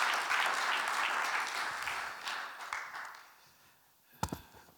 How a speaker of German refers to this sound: Ein Applaus für dich als Dankeschön.